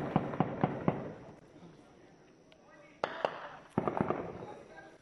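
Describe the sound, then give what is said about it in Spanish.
Sharp bursts of gunfire crack out in quick clusters, a rapid volley of four or five shots, a pause, then further shots echoing over a noisy outdoor background, during an armed attack by armed groups on homes in Aldama, Chiapas, Mexico. “Pues escuchamos estas, este audio de Rompimiento TV, esta agresión armada eh, que, pues bueno, están sufriendo los compañeros de Almada, de Aldama, perdón, allá en, Chiapas.”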